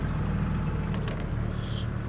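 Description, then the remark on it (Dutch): A boat motor is started and rumbles loudly and steadily, a deep throbbing drone with a brief hissing burst near the end, and no voices. “Het is altijd eerst de motor starten, dan de boot overkomen.”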